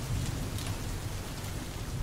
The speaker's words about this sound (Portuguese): E tava chovendo muito.